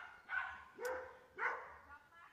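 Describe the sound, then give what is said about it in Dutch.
Dogs bark, three short, fairly faint barks at an uneven pace, followed by a softer fourth one, with no one talking over them. “Buiten de honden hoort hier wel niks. Dat is het enige wat dat je hoort.”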